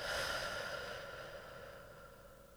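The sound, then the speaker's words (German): A slow, soft exhale after a deep breath in, drawn out over a couple of seconds, a steady breathy rush that gradually fades, heard alone without any talking. “Wir atmen tief ein und wieder aus.”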